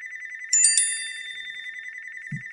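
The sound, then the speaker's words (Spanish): A home landline telephone rings with a steady, rapidly pulsing electronic trill throughout, while a brighter chime of SMS and WhatsApp notification tones bursts in near the start and rings out, overlapping like several phones going off at once. “Vaya, eh, están entrando todos los mensajes a la vez, SMS, el WhatsApp también para colmo, el teléfono de, aquí de casa al fijo, segundito, correo, vaya hombre, y no, y tenía que sonar el otro móvil también.”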